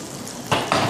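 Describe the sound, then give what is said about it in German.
A hot pan that held Rostbraten sizzles as water is poured in to deglaze it for a sauce, with a steady background hiss that flares into two loud, broad bursts of crackling steam. No one speaks. “Jetzt lösche ich das mit Wasser ab und gebe da diesen, diesen Saft da noch, noch rein.”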